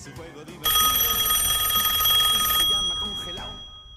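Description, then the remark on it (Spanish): A telephone rings with a loud, bright electronic trill that holds steady for about two seconds, then cuts off, leaving faint background murmur. It is the third phone call in to Radio Polillita. “Vamos a escuchar el tercer llamado telefónico.”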